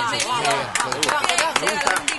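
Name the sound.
applause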